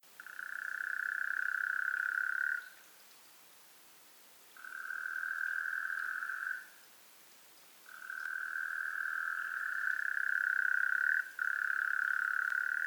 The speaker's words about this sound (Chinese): 那它最酷的点就是它冬季的时候是它的繁殖季，然后它会躲在一些泥巴地里面叫，然后它的叫声是有点像是那种汪汪汪，类似这样子的叫声，比较奇特一点。